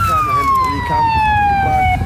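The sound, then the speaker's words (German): An ambulance siren wails loudly as the ambulance arrives to care for sick small children at a makeshift camp, one long steady tone slowly sliding lower in pitch, over a low rumble of traffic and outdoor noise. “Ein Krankenwagen kommt und versucht sich um die Kleinen zu kümmern.”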